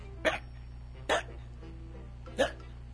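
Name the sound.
voice imitating hiccups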